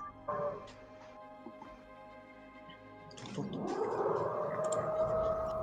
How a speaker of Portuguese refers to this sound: Esse é barulho de fundo. Meu Deus, mestre! É, Eco misturado com furadeira.